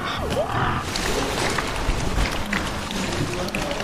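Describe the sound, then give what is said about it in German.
A crowded chorus of many pigs, standing side by side, oinking and grunting over one another all the time, loud, forming a dense, unbroken din with no pauses. “Also hier sind gerade so ziemlich viele Schweine und die stehen alle nebeneinander und oinksen die ganze Zeit. Richtig laut, aber irgendwie voll süß.”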